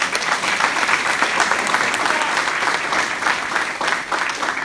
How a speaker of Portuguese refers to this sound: Dê um aplauso.